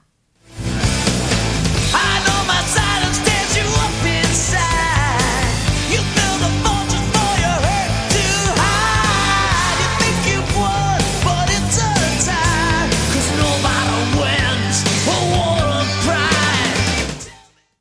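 A loud, dense rock song plays throughout, driving drums and distorted guitars under a powerful, roaring male vocal that surges and strains, the full band staying at steady intensity before cutting off abruptly.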